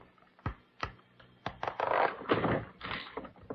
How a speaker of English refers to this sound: Look at this drawer. It isn't as deep as the others. Why, it has a false bottom. Why, so it has. Uh, can you take out that false bottom, Dr. Kildare? Yes. Uh, hand me that letter opener, please.